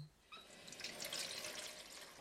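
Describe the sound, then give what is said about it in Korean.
A kitchen tap runs steadily while dishes are washed, a continuous hissing splash of water that starts abruptly after a brief quiet moment and holds at an even level, with no voices. “자기야, 나 설거지할 동안 음식물 쓰레기 좀 버리고 와.”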